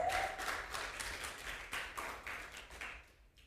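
An audience applauds the Lord for the preached word, a dense wash of many hands clapping at a steady, moderate loudness before it thins out and fades in the final second.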